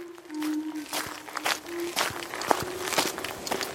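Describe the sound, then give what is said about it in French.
Steady footsteps of a postman walking his mail round at an even pace, each step a crisp impact, with a faint sustained tone humming underneath. “Ce jour-là, en marchant pour distribuer son courrier, il trébuche sur une pierre.”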